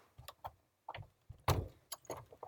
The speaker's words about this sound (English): Close the studio door here.